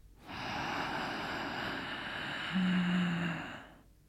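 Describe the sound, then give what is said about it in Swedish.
A long, deep breath drawn in through the nose, filling chest and belly, a steady airy rush lasting several seconds, fairly loud, swelling slightly near the end before stopping. “Så sätt dig bekvämt, släpp ner axlarna, slappna av i ansiktet, släpp ut magen, kanske knäpp upp brallorna och ta ett djupt andetag in genom näsan.”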